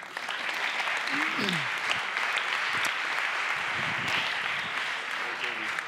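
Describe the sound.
Steady crowd applause, a dense, continuous crackle of many hands clapping at even loudness throughout, with a few faint voices calling out beneath it.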